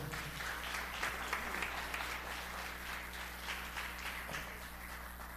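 An audience applauds steadily for several seconds, a dense, even wash of many hands clapping with no one speaking over it. A low steady hum sits beneath the applause.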